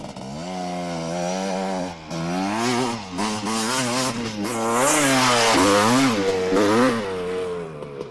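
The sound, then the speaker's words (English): A dual sport motorbike with a souped up engine and dirt racing tires roars at the back of a warehouse as it jets out of a storage shed, its pitch rising and falling through repeated revs for several seconds, loud and continuous with no voices. “No sooner had he said this the sound of a dual sport motorbike rang out from the back of the warehouse.”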